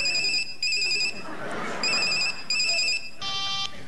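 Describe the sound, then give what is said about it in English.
A telephone rings in repeated double bursts of a bright electronic tone, with a short pause between pairs, ending in a brief different beep as it's answered; a 'phone a friend' call placed during a quiz game on Radio 2's Best of Jazz. “Can I phone a friend?”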